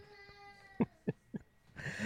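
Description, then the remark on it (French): A young boy cries in a few short, halting bursts, whimpering and sobbing in a thin, fairly faint voice, then rising into a longer wail at the end. No one speaks. “fait que, euh, je vais nommer des patrons pendant que pendant que mon flow pleure.”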